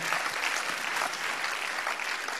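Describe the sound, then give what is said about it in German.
An audience claps steadily for a couple of seconds in applause for Jesus and for the people from the cinema. It is a dense, even wash of many hands with no voices standing out. “Ja, lass uns Jesus, aber auch den Leuten mal vom Kino hier einen Applaus geben.”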